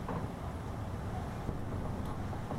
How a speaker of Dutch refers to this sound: Het waait vannacht.